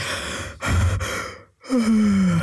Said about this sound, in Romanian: Căscatul la comandă, cum ar veni. Un căscat dintre ăla în care te iau un pic de panică că nu mai ai aer în creier și faci un...